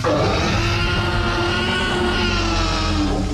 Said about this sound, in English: They really nailed the sound effects of these dinosaurs.